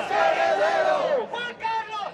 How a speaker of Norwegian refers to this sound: Juan Carlos den første, Francos arvtaker, roper en gruppe demonstranter i sentrum av Madrid.